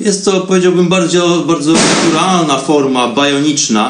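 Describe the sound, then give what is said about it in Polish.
A man talks steadily while a single sharp firecracker pop bursts out in the background partway through, brief and noisy beneath his voice, in a very old, revered city in India. “Ale powróćmy do wątku i do mojego miejsca i dla, dlaczego w tle słychać odgłosy wybuchających korsarzy.”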